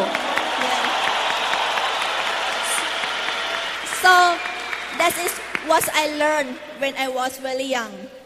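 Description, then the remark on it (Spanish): An audience claps in a dense, steady wash of applause for about four seconds, applauding the speaker's father, then a person starts talking as the clapping fades beneath the voice. “por favor, un aplauso para mi papá que nunca, nunca se rindió.”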